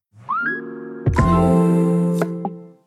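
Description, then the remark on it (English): The Instacart brand audio logo (mnemonic): a bright rising synth tone swells into a sustained, shimmering chord, punctuated by a few crisp percussive taps, then fades out cleanly. No voices. “For sound design, I was inspired by the Instacart mnemonic.”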